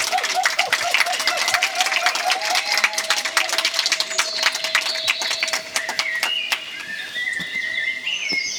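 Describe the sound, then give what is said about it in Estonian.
A crowd of festival listeners on a lawn applauds steadily for about nine seconds, a dense patter of many hands clapping, with a few high whistles and chirps rising over the clapping toward the end. “palun aplausi siit meie mõjuväljakult, et te kuuleks, kui palju meil siin kuulajaid oli.”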